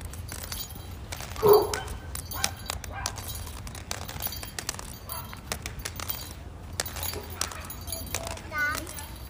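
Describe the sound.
A dog barks once, moderately loud, then gives a fainter bark near the end, over a busy outdoor background of sharp tapping clicks from a walking cane and faint voices.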